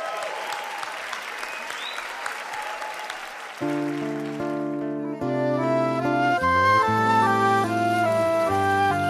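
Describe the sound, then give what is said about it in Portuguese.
A crowd applauds steadily for guest forró musician Kiko Horta, a dense wash of clapping that carries on as accordion-like music starts with sustained chords and builds into a lively tune over it. “Vamos aplaudir?”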